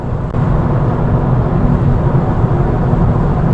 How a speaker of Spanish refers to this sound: es de que en este coche, el Honda Civic, una de las cosas más criticables de las pocas, porque es un excelente coche, es el ruido de rodadura muy alto en el habitáculo, algo endémico de los vehículos japoneses y que en este Civic se nota mucho.